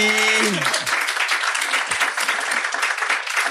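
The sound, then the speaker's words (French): A crowd bursts into loud, sustained applause and cheering for PE, dense and steady throughout, with a brief tone sliding down and fading at the very start. “Faites du bruit pour PE s'il vous plaît.”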